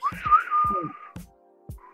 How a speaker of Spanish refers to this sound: Chifló, este, este el, bueno, el malo y el feo